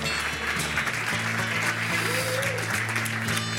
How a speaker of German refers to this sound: Herzlich willkommen im Franz. Ah, ist das schön. Hören Sie nicht auf zu applaudieren. Machen Sie einfach weiter.